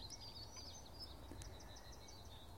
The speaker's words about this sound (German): Ich hatte eigentlich vor, mit euch in den Amselteppich abzutauchen und ich werde gleich am Schluss nochmal beschreiben, was ich damit meine, aber der Amselteppich ist durchwoben von anderen Gesängen.